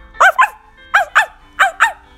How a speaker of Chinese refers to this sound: 这时，丢了手套的老爷爷带着他的猎狗来找手套。猎狗看见手套一动一动，汪汪大叫。